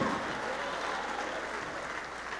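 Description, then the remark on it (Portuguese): A large crowd applauds continuously as more people come forward, a dense, steady wash of clapping that holds at an even level throughout, with no voices standing out above it. “Está chegando mais, vamos aplaudir mais.”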